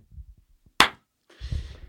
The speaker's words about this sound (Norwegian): Da, uh, da klapper jeg. Ja.